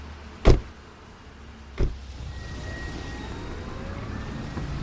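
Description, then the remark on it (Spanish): Two sharp thuds, like car doors shutting, are followed by a steady engine rumble with a faint whine as a car pulls away on a quiet street by the Mapoma Run Center in Madrid, in fine rain on a winter afternoon, after dropping off a woman in a wheelchair. “El coche se aleja y ella mueve las ruedas para trasladarse por la acera.”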